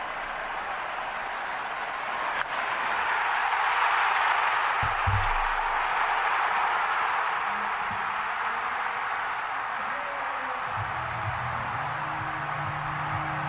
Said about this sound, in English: You hear the crack of the bat, the roar of the crowd, the bell ringing as Bryson Stott. Yeah, that's right. The very first pitch of the at bat, Bryson Stott lifts one deep to Utley Alley. Uh, and right, and it's a grand slam home run